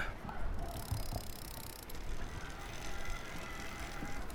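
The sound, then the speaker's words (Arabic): An electric bicycle motor hums steadily beneath a constant wash of rolling road noise, continuous and fairly quiet for the whole stretch, with no voices. “المهم نشدوا طريق ممكن اعلى صوت اللي يزنزن اهو صوت الموتور بتاع البشكليطة الموتور الكهربائي”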